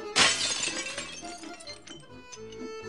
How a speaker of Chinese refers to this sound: 在一九零零年啊，这些娃娃都是孩子们的玩具，但是啊，当时还没有塑料，所以啊，这些娃娃都是陶瓷做的，很容易摔碎。